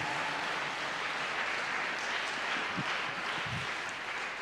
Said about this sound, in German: Oh ja, weißt du, lass uns Jesus einen Applaus geben, weil das ist einfach phänomenal.